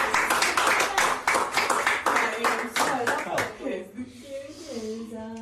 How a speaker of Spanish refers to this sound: Un aplauso por ustedes.